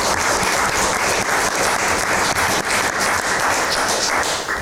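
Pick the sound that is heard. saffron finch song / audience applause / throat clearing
audience applause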